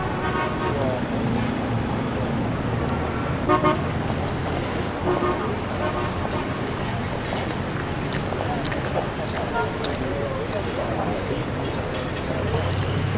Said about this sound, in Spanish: el lugar estaba atestado de gente que iba y venía entre los autos, que a fuerza de bocinazos entraban y salían del playón.